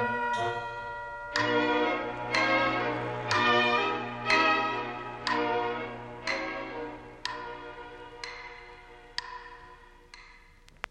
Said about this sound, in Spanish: Dan, din las horas del reloj, todas vienen a cantar. Dan, ding dong.